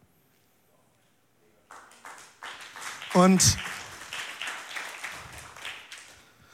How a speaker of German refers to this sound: vier, fünf Konservativere haben geklatscht, die anderen Leipziger sind noch am Überlegen.